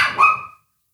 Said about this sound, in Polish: To mój pies, przepraszam coś krzyczy, ale to chyba o, o, o tym pattaju. To jest jego ulubione, jego ulubione danie, nie?